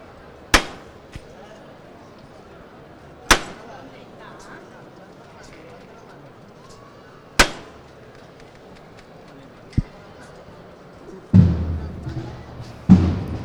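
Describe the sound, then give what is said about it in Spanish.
The llamador (knocker) of a processional float strikes about five sharp, ringing knocks at uneven intervals over a low crowd murmur, ending with a louder burst of noise and a final knock. “Escucha, es un llamador.”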